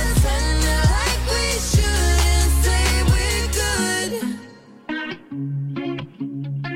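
A snippet of an upbeat pop song plays loud and up front: a full, processed mix with a thumping kick drum that drops out partway, leaving a sparser, lighter arrangement.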